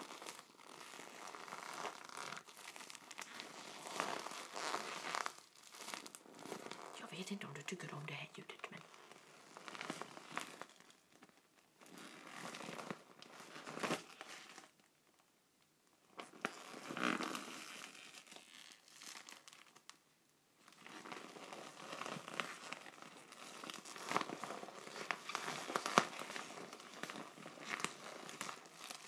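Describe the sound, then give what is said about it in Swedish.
Crinkling of an uninflated plastic beach ball bought in Ystad, an original beach ball from gp Class: a dense crackly rustle in bursts over half a minute with brief pauses, moderately loud, with a few quiet spoken words early on. “Original badboll från gp Class faktiskt.”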